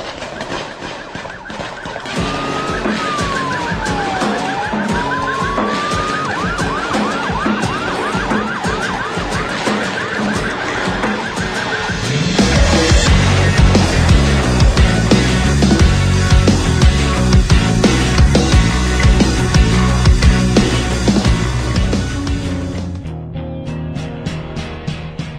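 A fast, loud skate rock song with reggae and hip hop influences, a new single: a wailing siren-like sweep rides over the opening, then the full band crashes in harder with pounding drums before cutting off near the end.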